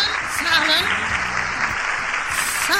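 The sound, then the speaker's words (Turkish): Steady applause from a crowd for the children who sent messages to the program, a dense crackling wash of clapping that fills the whole stretch, with voices calling out and talking underneath it. “Geçen hafta mesaj gönderen bütün altın çocuklara öncelikle teşekkür ediyoruz ve onları bir kez daha alkışlayalım.”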